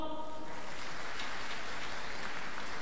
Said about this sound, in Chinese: 用热烈的掌声有请黄靖惠。